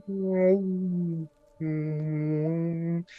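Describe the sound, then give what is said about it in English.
Two long, steady, muffled moans with a low droning pitch, like whale song, the sound dampened by water, separated by a brief pause and ending with a quick faint high squeak. “with the water, and it kind of sounds like whale songs.”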